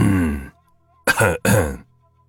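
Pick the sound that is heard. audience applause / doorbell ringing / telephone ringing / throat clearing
throat clearing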